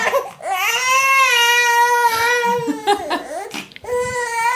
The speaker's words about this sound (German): wollte ich nur mal kurz äh, das Schreien unseres Sohnes zeigen. Aber das ist wunderschön.